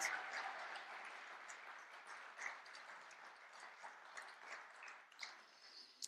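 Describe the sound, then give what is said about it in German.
Sustained applause from an audience honoring a couple fills the whole stretch, a dense, steady patter of many hands clapping at once, at moderate volume with no voices over it. “Lasst Gerhard und Jeanette uns ehren und ihnen einen kräftigen Applaus geben.”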